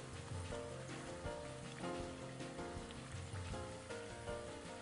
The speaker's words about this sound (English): We're just going to continue to stir them in the oil. The reason I keep stirring these is so they don't stick together in the oil. You don't want to crowd the pan because what they'll do is they'll get super soggy instead of getting crunchy.